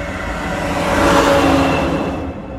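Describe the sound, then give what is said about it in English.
A car passes by on a quiet street in a residential subdivision, its broad tire-and-engine rush swelling to a peak mid-clip and then fading as it moves away, with no voices present. “I'm on a street in a subdivision where there's traffic. So there's going to be a little bit of that going on.”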